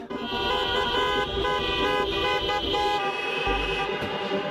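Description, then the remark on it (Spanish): Several car horns blare at once in a sustained, overlapping chorus of honking, loud and continuous over a low rumble of engines, with no one speaking, at a protest held in cars against an education law, backed by state-subsidised private schools. “De los gritos del Congreso a las manifestaciones en coche, aupadas por las escuelas concertadas, que encuentran en esta ley un ataque a la libertad.”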